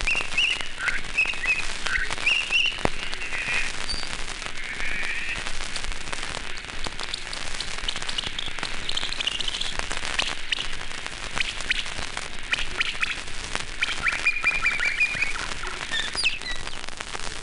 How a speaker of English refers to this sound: good way to hear the patterned structure of humpback songs is to speed them up to birdsong speeds. This song is sped up 14 times. It's the only speed change on this record.